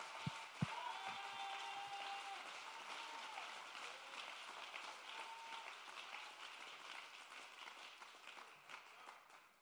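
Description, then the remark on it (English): A church audience claps their hands for Jesus, a dense, steady wash of many hands clapping that fills the whole stretch, with a few scattered whoops and tonal bits rising over it, sustained. “Well, even if you don't know what I'm talking about, would you clap your hands and love Jesus?”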